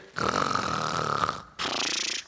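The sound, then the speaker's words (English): A crowd of people pretending to sleep and imitating snoring together like firefighters, a loud, rough, rasping roar held for over a second, a brief break, then a second shorter burst of mock snores. “And if you would, let's, uh, let's snore, let's snore like firefighters.”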